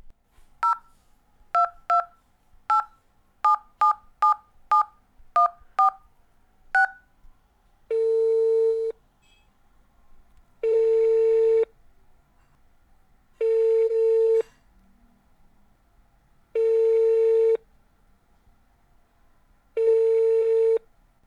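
A quick series of about ten telephone keypad tones is dialed, followed by five long, evenly spaced ringback tones with pauses between them, clear, with no one speaking.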